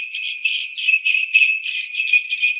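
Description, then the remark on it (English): Sleigh bells jingled with both hands continuously for a few seconds, a bright, steady jingling with rhythmic surges as they are jangled, fairly loud with no voices. “Can you can you with both hands you know, grab the bells with both hands and give them a good old jingle jangle.”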